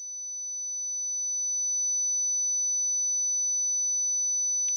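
A piercing, steady high-pitched whistling tone rings out continuously, made of a few sustained pure pitches layered together, loud and unbroken before cutting off abruptly.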